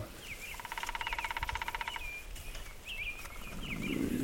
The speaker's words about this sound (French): Je crois qu'il y a les oiseaux qui rajoutent quelque chose derrière toi. C'est génial.